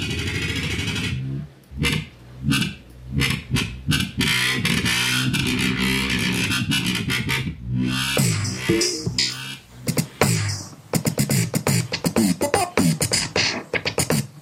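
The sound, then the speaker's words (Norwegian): A loud, dense electronic tone with a gritty, distorted texture, with a pitch function applied while it is adjusted on a phone, its pitch bending and shifting in stuttering bursts and choppy gaps, played alone throughout. “Så en pitch-funksjon på den samtidig, da.”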